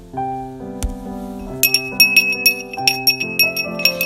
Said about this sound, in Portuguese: O recipiente era vulgar, o sítio era ordinário e a colher estava gasta, viscosa de tanto ser usada. Ouvia-se o barulho do metal contra o vidro.